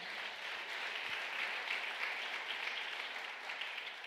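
An audience applauds steadily during a sermon, giving a loud round of applause for the Lord: a dense, sustained wash of many hands clapping at an even level for several seconds with no voices rising above it.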